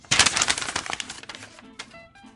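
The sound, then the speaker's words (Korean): A sheet of paper, a letter, is crumpled up, a dense burst of crackling rustles that fades into a few softer, scattered crinkles over about two seconds, with no talking. “오랜만에 한번 구겨드립니다.”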